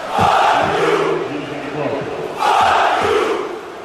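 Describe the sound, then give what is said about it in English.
A huge stadium crowd of football fans sings and chants together in English before the game has started, a loud, dense roar of massed voices that swells near the start and again midway, with no individual speaker standing out. “It, was an assault. And they sang in English for your benefit.”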